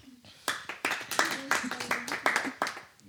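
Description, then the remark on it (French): An audience claps in uneven bursts that rise and fall for about three seconds, mixed with loud cheering and shouting voices over the top, as an applause-meter vote for the Biquettes team after their fourth joke. “Attention, nouvel applaudimètre pour les biquettes.”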